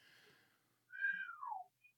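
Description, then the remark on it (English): A breathy, airy puff gives way to a brief, wavering whistle that slides downward and fizzles out, followed by a tiny faint peep, like a botched attempt at whistling. “Oh, that, that whistle failed.”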